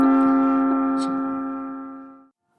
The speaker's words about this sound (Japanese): まあ、思いっきりまあ、あの、チャイムの音が鳴っちゃいましたけど、まあしょうがないですね。まライブで撮ってますからね。まあこういうことも起こりますけどね。ちょっとチャイムが鳴るのを待ちましょう。